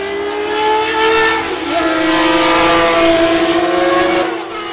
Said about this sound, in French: Au final, Matra au Mans, c'est 9 participations et 3 victoires. Une bien belle histoire et le chant légendaire d'un moteur V12.